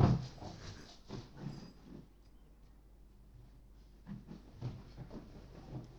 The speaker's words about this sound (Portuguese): Epá, eh, eu vou ter de tratar aqui do meu cão. Ó oh, Zipi, Zipi, queres ir tomar banho? Zipi, queres ir tomar banho? Anda. Anda.